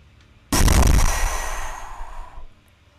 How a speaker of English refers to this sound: it's almost like a spray of water in the distance. Do I see an elephant? Uh, you look over the you look over the edge and you see uh, a, like a large whale tail just breaching the water and oh. dipping down.